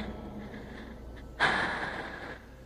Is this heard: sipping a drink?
no